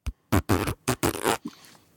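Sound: voice imitating a fart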